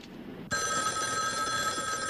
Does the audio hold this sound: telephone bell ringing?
yes